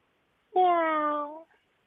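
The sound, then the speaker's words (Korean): A person imitates a cat that was resting comfortably and is suddenly disturbed, with a single sharp, drawn-out angry yowl lasting about a second, loud, ending abruptly into silence. “예, 편안하게 있는 고양이를 갑자기 건드려서 고양이가 화내는 소리.”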